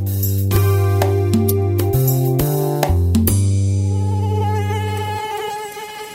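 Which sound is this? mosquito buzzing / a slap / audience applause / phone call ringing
mosquito buzzing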